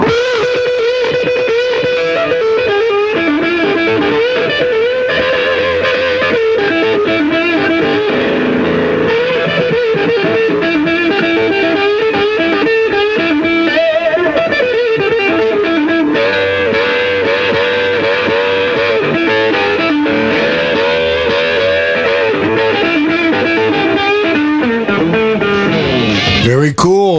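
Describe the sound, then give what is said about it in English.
A loud, heavily distorted electric guitar is played as an example of aggression in music, continuously for nearly half a minute, with thick, buzzing sustained notes and bends, ending in an abrupt sweep. “Just an example of aggression in your music.”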